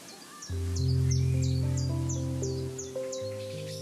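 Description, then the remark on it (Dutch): A chiffchaff sings in spring, a steady run of about ten bright, clipped notes at an even pace, clear, over a low sustained droning hum in the background. “Zo'n mooi voorjaarsgeluid. De chifchaf.”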